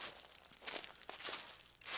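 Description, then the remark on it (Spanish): Footsteps of two people crunch through a forest floor at a steady walking pace as they head into the forest, with rustling, crackling steps over dry leaves and twigs. No one speaks. “Laura y Constantino se dirigían al bosque”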